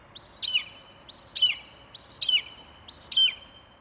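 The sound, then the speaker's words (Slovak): A golden eagle gives four high, thin yelping calls in a steady rhythm, each a rising then falling chirp, clear, with no other sounds around them. “A ešte radšej mám vtáky. Napríklad takého orla skalného.”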